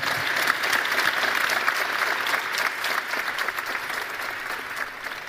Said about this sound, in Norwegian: Mine damer og herrer, tusen takk for oss. Gi en god applaus til våre fantastiske paneldeltakere.